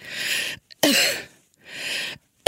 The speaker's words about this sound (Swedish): Som, där det kliar och jag inte kan andas. Och då, då låter det så här. Då måste jag hämta luft så här. Ja. kommer en host, för det kliar då också.